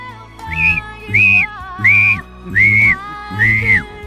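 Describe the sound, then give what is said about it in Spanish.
Whistling in five steady, evenly spaced notes, each held about half a second with a slight upward slide at the start, clear, with no talking. “Empieza eh, a silbar.”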